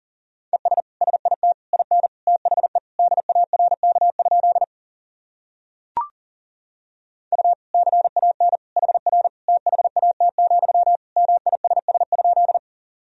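Rapid Morse code beeps in a single steady mid-pitched tone, keyed in quick dots and dashes at 40 words per minute, sending sentences built from common words and abbreviations. Two long runs of sending are split by a short pause with a faint click between them.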